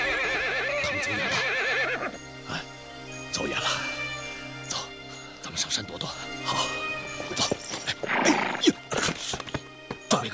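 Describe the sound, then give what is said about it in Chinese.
A tired horse that can hardly run any more, ridden in flight, lets out a loud, high, quavering whinny that wobbles in pitch for about two seconds, followed by irregular clattering, thuds and people's raised voices. “警察，马快跑不动了，咋办？ 骑马上山，往山里钻。”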